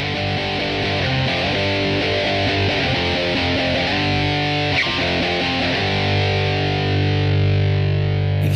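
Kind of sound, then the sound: music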